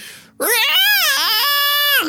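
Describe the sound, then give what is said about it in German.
A voice imitates a screaming squirrel: one loud, shrill, wavering squeal that rises and dips in pitch, held for nearly two seconds, alone. “in dem Moment, ähm, als sie die Augen aufschlägt, ruft das Eichhörnchen”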